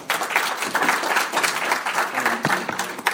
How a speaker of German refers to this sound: Applaus.